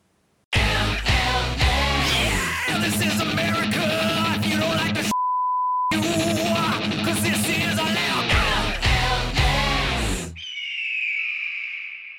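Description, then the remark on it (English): A loud, dense, American-style rock MLS soccer theme tune blares for about ten seconds, briefly interrupted by a steady electronic beep midway, then gives way to a thin, wavering high tone. “I'm surprised that that thunderous, such American wall of sound could fit on a little USB drive on the back of a Raven”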